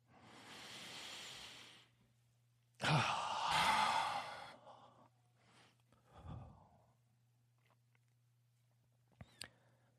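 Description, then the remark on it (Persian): A long, deep breath drawn in through the nose, followed by a louder, forceful exhale through the mouth like a sigh, during a deep-breathing exercise with eyes closed, then a few faint rustles and small clicks. “و حالا بیای همه با همدیگه چشمون رو ببندیم و یه نفس عمیق از دماغمون بکشیم و بعد بازدم از دهن یه دفعه دیگه حالا دفعه سوم هم میتونین با صدا این کار انجام بدین”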